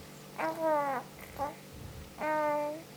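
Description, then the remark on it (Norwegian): A one-month-old baby, lying down and trying to talk, recorded on a mobile phone: soft cooing and babbling vocalizations, three short drawn-out sounds with gliding pitch, separated by brief pauses, moderately loud with faint background hiss. “Hører du deg sjøl nå?”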